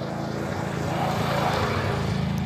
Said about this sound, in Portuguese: Hum, passou um quadriciclo aqui meio barulhento. Aí eu dei uma pausa.